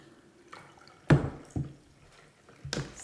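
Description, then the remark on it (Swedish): Cold milk splashes from a jug in several short, wet bursts, the strongest about a third of the way in, then softer drips and a final splash, with no talking. “jag hällde kall, eh, mjölk i kannan där till dig.”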